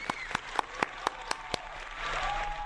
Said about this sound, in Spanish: Me da gusto, aplauso.